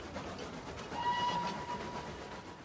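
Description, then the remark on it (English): A solitary steam engine rumbles through the icy expanse of Finland on April 3, 1917, with a steady, noisy clatter, and a thin, high whistle tone rises briefly over the din partway through before fading back into the rolling sound. “A solitary steam engine chugs its way through the icy expanse of Finland.”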